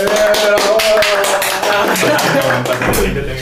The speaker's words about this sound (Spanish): Eh, pues denle un aplauso,